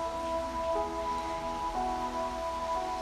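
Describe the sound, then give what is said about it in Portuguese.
Heavy rain pours down in a steady, unbroken hiss that fills the whole stretch evenly, with a faint droning hum running beneath it and no voices. “Desculpe, a chuva tá chovendo pra caramba”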